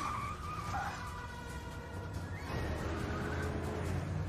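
A car roars along at speed, then a sustained tire squeal cuts in as it brakes hard, loud, with the engine rumbling underneath and no voices.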